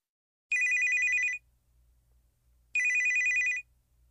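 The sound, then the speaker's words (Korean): A telephone rings twice in bright, trilling bursts, each a little under a second long with a short gap between them, over a faint low hum and no talking. “건축사 자격증을 딴 뒤 규모가 큰 건축회사에서 실습차 인턴 생활을 하고 있던 어느 날, M은 W로부터 걸려온 전화를 받았다.”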